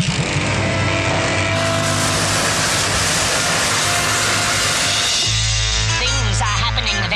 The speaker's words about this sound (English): Not if we use the jet boosters! We'll be there in ten minutes!